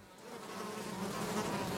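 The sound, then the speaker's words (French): Flies buzz continuously in flight on a windy island, a steady droning hum that swells slightly louder over the short stretch, with no voices present. “Résultat, la plupart des mouches qui volent se font rapidement emporter par le vent et se perdent en mer.”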